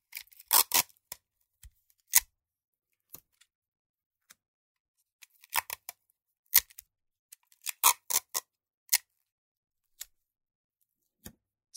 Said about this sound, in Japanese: 紙を一枚使ってパイプを作る。はじめにテープを三枚取る。